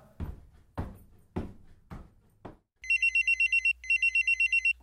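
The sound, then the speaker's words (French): A few heavy thuds give way to a mobile phone alarm ringing: a loud, bright electronic trill warbling rapidly in two close bursts, with no voices. “Au son de l'alarme, Geneviève regarde son portable.”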